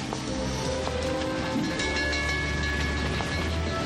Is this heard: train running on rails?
yes